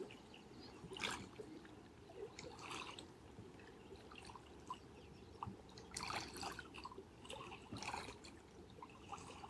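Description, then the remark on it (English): Water trickles and splashes over rocks in a steady stream, with brighter gurgling bursts every second or two rising above a continuous low rush. No voices are present. “listening to the song of the water and rocks, the song of movement.”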